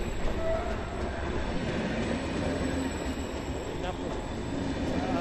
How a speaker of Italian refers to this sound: L'uomo porta lo sguardo nuovamente verso i binari perché sta arrivando un altro treno.